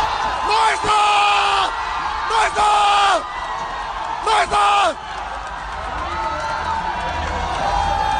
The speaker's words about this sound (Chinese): 现场的中国观众们更是难掩激动情绪，齐声欢呼啊！